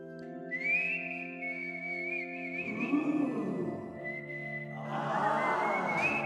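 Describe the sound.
A man's short whistled melody, made with his penis, a thin high tone wavering through a few notes over sustained low tones with a busier noisy stretch in the middle and at the end.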